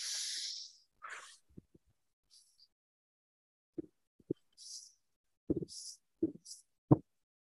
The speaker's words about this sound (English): But you take a deep breath in through your nose and then you exhale through your mouth with like pursed lips. and you start by breathing slow and then you speed it up.